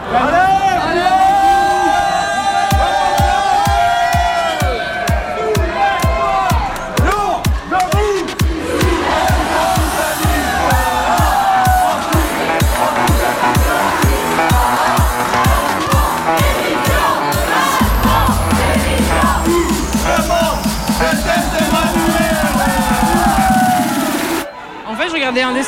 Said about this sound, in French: Un cortège s'est formé, ça a un petit peu hésité, et puis c'est parti en manif sauvage.